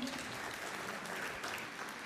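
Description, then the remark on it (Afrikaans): A crowd claps steadily for about two seconds to welcome a family who travel from Paarl, a dense, even wash of many hands with no pauses, holding a constant loudness throughout. “Hulle ry van Parel af, gee vir hulle lekker hande klap toe.”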